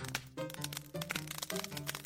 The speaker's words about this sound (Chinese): 嘣！池塘边的一棵大树应声倒下在河的中间，然后呢，听到岸边传来了一只海狸高兴的呼喊声：“ 成功了，好开心，好开心啊！”